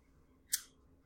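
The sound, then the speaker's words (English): A single sharp snip of scissors cutting into the plastic packaging of an Arrow Video Blu-ray while it is being opened, stabbing the slipcover, crisp, with a brief hissy tail. Otherwise only faint background hush and no voices. “Oh, I stabbed it with the scissors as I was trying to open uh. the ah. stupid packaging.”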